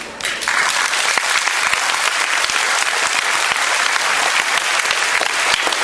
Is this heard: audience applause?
yes